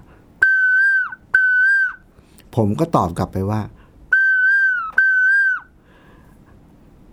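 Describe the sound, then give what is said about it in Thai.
A person whistles an imitation of a koel's call: two loud, clear notes, each held level and then dropping at the end. A brief stretch of speech follows, then the same two-note whistle repeats. “คือตอนที่ผมบอกว่า นกกาว่าวเนี่ย มันร้องบอกว่า”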